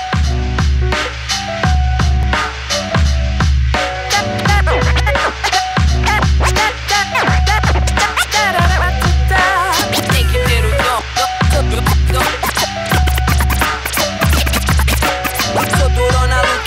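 DJ turntable scratching cuts loudly across a heavy, thumping hip-hop beat, with quick rhythmic scratches repeating throughout the music.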